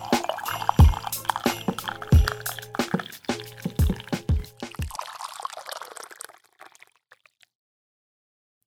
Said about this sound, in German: Alter, diesmal war es so mega knapp vor meiner Hand, ey. Wirklich, irgendwann gieße ich mir hier live im Podcast die gesamte heiße Brühe über den Arm. Der ganze Jacuzzi läuft über meine Hand aus.